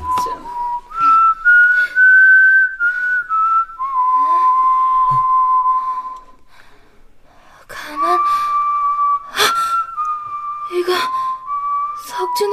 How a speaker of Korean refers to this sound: 오빠가 부는 휘파람 소리야. 아이, 휘파람 소리가 어디서 들린다고 카노?